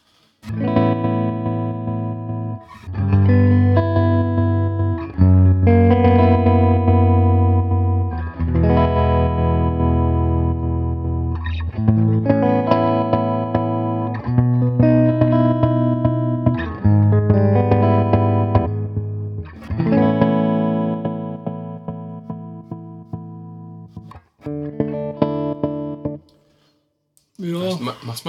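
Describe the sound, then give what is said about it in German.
An electric guitar plays sustained chords and notes through a Boss MD-200 modulation pedal set to pattern 17 while a knob is turned. The sound has a swirling modulation with a shimmering, chorus-like wobble and some reverb. It is loud, in phrases separated by short pauses. “Was kann das Boss MD-200”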